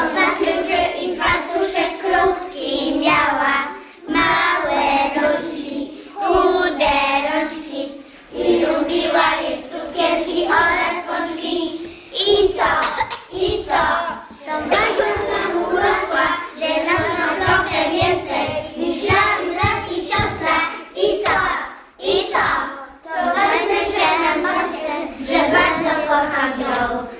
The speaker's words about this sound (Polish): A ten prezent od przedszkolaków z przedszkola niepublicznego Haguś w Lublinie, no to co to może być? No oczywiście piosenka.